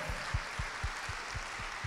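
An audience applauds in praise of God, a dense hiss of clapping carried over a steady low thumping beat about four times a second, at a moderate level with no one speaking.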